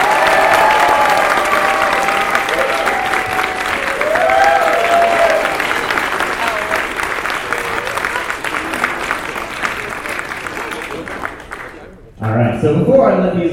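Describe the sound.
Loud, sustained applause from a large audience fills the room with dense clapping and some cheering, fading out after about twelve seconds as a voice begins speaking.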